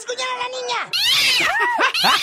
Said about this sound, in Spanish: ¡Qué gato tan rebelde tiene usted, Diva de México!